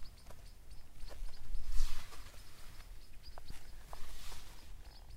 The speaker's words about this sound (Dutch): Hier, dat is een eh, houtsnip.